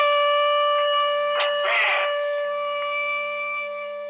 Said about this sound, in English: The peak of the compound's physical effects was reached within four to six hours the peak of mental incapacitation several hours later when a simulated chemical alarm sounded.